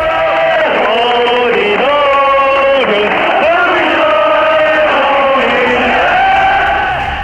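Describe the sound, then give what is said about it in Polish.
A large crowd on Tiananmen Square in China sings a slow, stately revolutionary anthem of the communist movement together, many voices in unison holding long notes that rise and fall, loud and continuous with an open-air quality. “I teraz ludzie zaczęli śpiewać. To jest międzynarodówka, rewolucyjny hymn światowego ruchu komunistycznego.”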